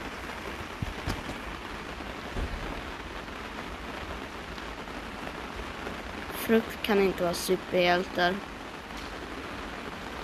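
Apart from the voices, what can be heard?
heavy rain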